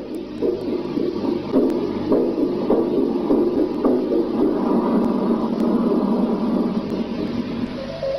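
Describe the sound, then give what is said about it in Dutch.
A crackly, static-laden radio signal received in February 1961, with a muffled rhythmic throbbing like a heartbeat and breathy, panting-like noise, steady and fairly loud throughout, with occasional sharp clicks and no talking. “Het klinkt een beetje als een hartslag en wat geheig.”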